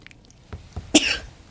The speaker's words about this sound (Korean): 어, 죄송합니다. 재채기가.